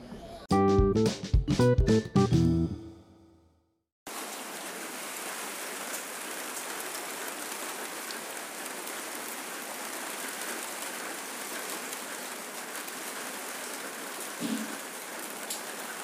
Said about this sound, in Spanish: Eh, pues ya oís el, el, de la lluvia, eh, otro día que no para, esto es, esto es increíble.